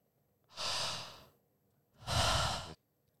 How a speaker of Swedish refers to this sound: Visst var det skönt att, att andas lite djupt? Ja, jag gjorde det samtidigt där som, eh, som dig.